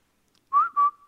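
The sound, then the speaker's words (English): A short human whistle of two quick notes, the first gently rising and the second held steady, clear with no other sounds around it. “You, you give a little whistle.”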